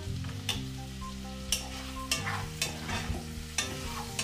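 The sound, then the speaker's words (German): Food seasoned with a stock cube, salt, pepper and dried parsley sizzles steadily in a pan while a utensil stirs and scrapes it in several irregular strokes, each a sharp clatter over the constant frying hiss and a low hum. No one speaks. “Zwischendurch wieder mal umrühren.”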